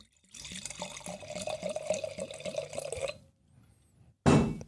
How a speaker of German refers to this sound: Schraubverschluss auf, stilecht, ab ins Glas, der Gerät.